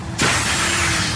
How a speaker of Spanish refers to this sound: Cuando tu hijo pincha la rueda de tu coche nuevo, suena así.